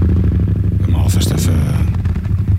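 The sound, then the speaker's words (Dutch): A Yamaha Super Tenere motorcycle engine runs with a steady, deep throbbing rumble, holding an even idle throughout while a person speaks briefly over it. “Tenere klinkt zo hoor.”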